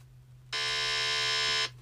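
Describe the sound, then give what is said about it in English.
A single loud, harsh game show buzzer blares steadily for just over a second, signalling that a contestant has rung in during a quiz, then cuts off abruptly, with a faint low electrical hum underneath before and after. “And if you hear this buzzer,”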